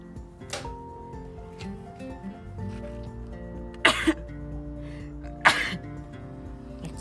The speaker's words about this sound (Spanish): Excuse me. Me dio un estornudo. Estoy aquí afuera, sin suéter.